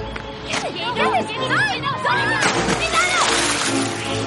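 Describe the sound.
Agitated voices shout over one another in Spanish, then a loud, broad splash of a woman falling into the water from a boat at an island bursts out midway and churns on beneath the continuing cries.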